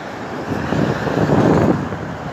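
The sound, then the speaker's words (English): Steady, fairly loud roar of road traffic on the busy Princess Parkway, recorded while walking alongside it in wind and rain, with a vehicle swelling past midway through; wind buffets the microphone and nobody speaks. “Now walking along the busy Princess Parkway.”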